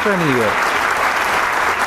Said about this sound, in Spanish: El aplauso lo recibe y con esto damos paso a la segunda parte del concierto número 10 de Caminata de Coahuila.